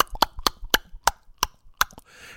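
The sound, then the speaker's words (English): A voice imitates a refrigerator knocking for no reason: about seven sharp, hollow knocks at an uneven, slightly slowing pace, fairly loud, with a brief breathy hiss at the end. “You ever have your fridge just knock for no reason?”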